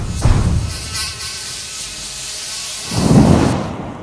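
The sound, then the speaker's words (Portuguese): A dense, steady buzz of a swarm of flies fills the air, with two deeper rumbling surges rising beneath it near the start and again toward the end. “Ele faz um campo de moscas de novo e o fogo é desfeito.”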